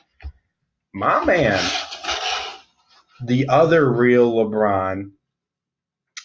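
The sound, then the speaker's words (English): Scratching and rubbing against a New Balance cardboard shoe box as a cat paws at it, mostly mixed under a man talking, with brief raspy bursts. “Probably it's the most relevant because you can hear him in the background playing with a New Balance box.”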